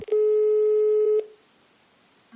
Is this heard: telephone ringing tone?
yes